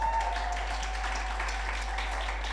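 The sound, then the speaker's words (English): A round of applause from a crowd welcoming a speaker being brought up: dense, steady clapping that holds an even level throughout, with no voices, over a constant low electrical hum. “if you want to give her a round of applause.”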